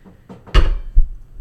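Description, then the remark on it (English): Two solid knocks on wood, fairly loud, spaced a little under half a second apart, preceded by a couple of faint lighter taps. No voices. “knock, knock on wood, spill my drink, and knock over a drink.”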